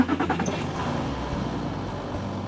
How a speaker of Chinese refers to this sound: 期待好久的出游日终于到了，爸爸正在发动引擎。